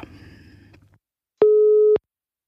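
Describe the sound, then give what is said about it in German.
A single steady electronic ringback tone of an outgoing phone call sounds for about half a second, clear, after a brief stretch of low muffled rustling and a moment of silence. “Klingelt.”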